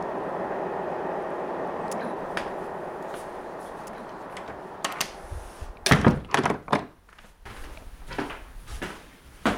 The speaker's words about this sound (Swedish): Nu far just tåget förbi här, det hörs alltid. Det, det tycker jag är hemtrevligt när man hör tåget som far förbi, alla människorna som, som är på väg någonstans.